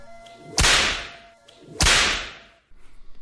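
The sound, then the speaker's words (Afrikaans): Two sharp, loud whip cracks about a second apart, each a piercing snap trailing off into a brief ringing decay, with no voices present. “'n dubbele sweep vir jou mannetjie.”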